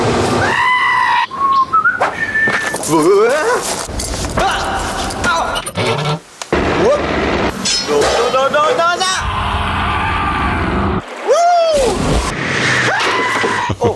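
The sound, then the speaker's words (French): A TV series theme tune is whistled as a wavering, melodic line of rising and falling notes, loud over a busy, noisy background. “Ou ma préférée, celle-là. le générique de MacGyver.”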